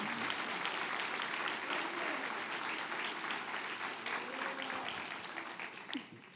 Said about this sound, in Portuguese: Vamos aplaudir o nome de Jesus.